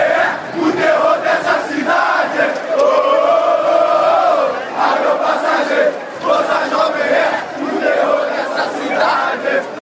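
A large crowd of football fans chants together in loud, sustained unison, their massed voices rising and falling in a rhythmic, sing-song pattern for the full ten seconds before cutting off abruptly.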